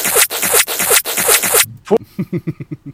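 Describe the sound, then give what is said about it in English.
Wet lip-licking and smacking as a man licks his lips: about five loud, rhythmic rubbing strokes, then a quick run of softer, shorter mouth sounds fading out. No one speaks. “that sound is him licking his lips for any audio listeners.”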